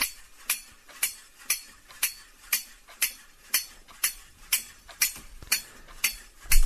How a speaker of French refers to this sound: La peluche singe qui a des cymbales est animée. Elle s'est activée toute seule et elle ne s'éteint pas.